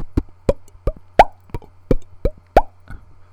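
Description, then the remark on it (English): About nine dull, muted thumps from palm-muted guitar strings, played by a guitarist using his hand and a guitar pick, struck in a steady, even rhythm like a hand drum. Fairly loud, with no voices. “It was actually the guitar player almost making like a palm mute sound with his hand and his guitar pick.”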